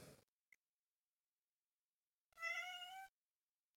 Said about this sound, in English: Okay, we need to stop looking at her. So she stops meowing.